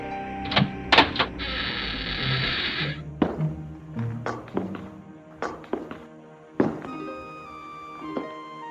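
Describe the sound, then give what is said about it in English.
Sharp, hollow knocks by Snow White on the wooden door of a small house, spaced irregularly, with a brief whirring mechanical noise early on and no voices. “She knocks on the door, but no one answers.”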